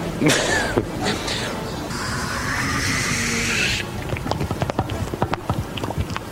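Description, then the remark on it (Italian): A voice imitates water running into a bidet with a steady hissing rush lasting about two seconds, followed by a scatter of small clicks and taps. “Faceva l'imitazione del bagno. Il primo rumore è stato il bidet.”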